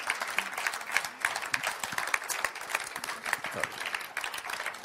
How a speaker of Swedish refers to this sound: Ska vi ge en stor applåd till de fantastiska gästerna här. Tack så mycket.